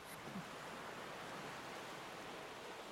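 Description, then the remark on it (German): A steady, even rush of water as a ship sets off again through ocean waves, with a continuous broad hiss of surf and spray and no voices. “Auf jeden Fall fährt dann das Schiff wieder an.”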